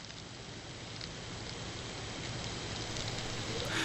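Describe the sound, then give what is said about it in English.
A mass of black soldier fly larvae, produced to make animal feed in Kenya, crawling, making a dense, steady rustling crackle much like rainfall, continuous throughout and swelling slightly louder toward the end, with no voices. “It sounds like rain, but what you're hearing are black soldier fly larvae.”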